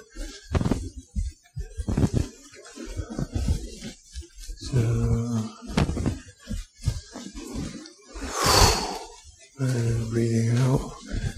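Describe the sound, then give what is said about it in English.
Deep breathing while folding and rising in an exercise, with slow audible inhales and exhales; one long airy breath stands out, and low voiced, groan-like tones mix in between breaths. “So, breathing out, you fold, breathing in, you rise, breathing out, breathing in, and out.”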